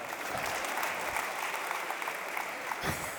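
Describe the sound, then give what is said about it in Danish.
A crowd applauds steadily as a speaker pours himself a beer, a dense continuous patter of many hands clapping at an even, sustained loudness throughout, with no voices standing out above it. “Inden, øh, ja, det må I gerne klappe af.”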